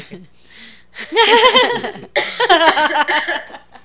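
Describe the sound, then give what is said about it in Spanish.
Two fairly loud bursts of coughing, each a rough run of throaty, partly voiced hacks lasting about a second, separated by a brief pause, with no talking. “ahora me tocó a mí la garganta. Le contagié, ha sido tos contagiosa.”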